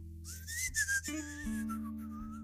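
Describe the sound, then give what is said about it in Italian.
Someone whistles a short melodic phrase, the pitch gliding up and down across a few notes, clear, over a steady low hum. No one speaks. “Parlate, cantate, urlate, fischiate.”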